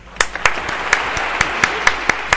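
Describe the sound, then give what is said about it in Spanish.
Steady, brisk applause: sharp, bright hand claps land in an even rhythm, about four per second, over a continuous hissing wash of noise, with no voices. “aplausos para ti”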